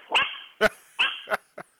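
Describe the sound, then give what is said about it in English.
The speaker's dog barks about five times in quick, uneven succession, sharp, with a thin high whine trailing between the barks and the last one short and clipped. “My dog.”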